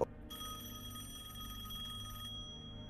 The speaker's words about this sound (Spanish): Teléfono. Voy corriendo a contestar el teléfono.